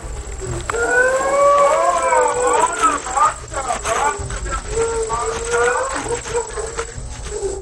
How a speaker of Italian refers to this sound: Queste urla che state ascoltando sono di una ragazza che piange e si lamenta perché vuole uscire dalla comunità.